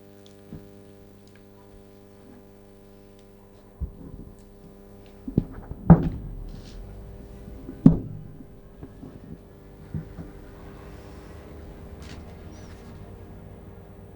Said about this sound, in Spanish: Aquí qué suena ciencia ficción? Pues tome nota porque escucharán esto bastante en los próximos años. Se trata del sonido de un coche eléctrico que podremos coger y componer a nuestro gusto.